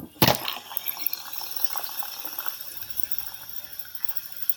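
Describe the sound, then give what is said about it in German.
Good-quality ball bearings spin after a sharp initial clack, giving a steady, bright whirring hiss with fine rattling texture that continues evenly for several seconds, with no voices. “Das sind die guten Kugellager. Die machen noch eine Weile weiter.”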